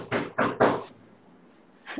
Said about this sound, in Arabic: الباب, الباب. تبي تشوفين الباب اخاف في احد يحتاجك